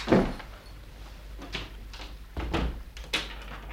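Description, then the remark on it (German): A door is worked open or shut with a heavy thump at the start, then a few scraping knocks and clicks spaced over several seconds, with no talking. “Die Tür hier.”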